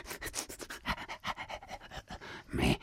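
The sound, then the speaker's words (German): A person pants rapidly and sniffs in short bursts, imitating a dog, ending in a louder, breathy huff. “bist, bist du ein Hund?”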